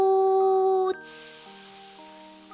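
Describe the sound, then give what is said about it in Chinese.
A steam locomotive lets out a loud, sustained hiss of steam that bursts in abruptly and keeps going, following a steady, humming tone that fades under it. “叮叮当当，车头上铃声喧嚣，蒸汽嘶鸣，刹车尖叫，呜。”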